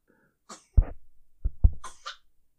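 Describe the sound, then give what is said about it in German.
A sneeze: a quick breathy inhale followed by a few sharp, forceful bursts of air in rapid succession, ending with a hissy exhale, with no talking. “Oh, Gesundheit.”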